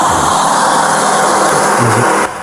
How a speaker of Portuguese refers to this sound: o barulho da estrada é muito irritante.